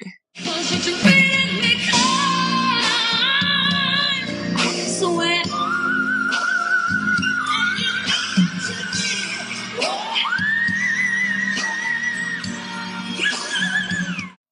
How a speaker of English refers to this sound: She goes up into some crazy whistle notes at the Pepsi Smash concert.